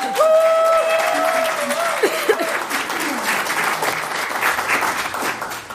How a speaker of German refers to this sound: Großer Applaus für Mayrisch Verlag!